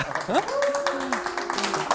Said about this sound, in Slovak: A Ježiš, aj za potlesk ďakujem.